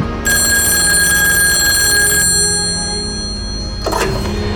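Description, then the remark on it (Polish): An old-fashioned telephone bell rings loudly in a sustained metallic trill for about two seconds, then stops, followed by a brief clunk or rustle near the end: an evening call to the commander of a fighter group stationed in the Netherlands. “Wydaje się to możliwe, a TZT potwierdza telefon, jaki dowódca stacjonującej w Holandii grupy myśliwców otrzymał tego samego dnia wieczorem.”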